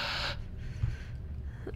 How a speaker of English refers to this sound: Did you think just breathing and then stopping was going to be good? He's holding his breath.